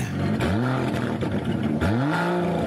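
Aston Martin DBS Superleggera engine revving loudly, with two quick rising revs that climb in pitch and then hold a deep, rough growl, no voices over it.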